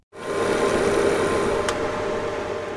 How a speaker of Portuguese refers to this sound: Isto é o som de um citómetro. Serve para analisar células e classificá-las por tamanho, forma ou características morfológicas. É um equipamento habitual nos laboratórios de biologia celular um pouco por todo o mundo.